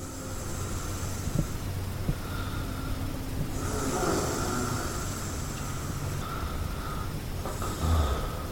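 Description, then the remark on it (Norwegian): A travel companion sleeping in Argentina snores in slow, repeated breaths, each rasping snore rising and fading over a steady low rumble of background noise. Nobody speaks. “her er lyden av reisefølget mitt som sover.”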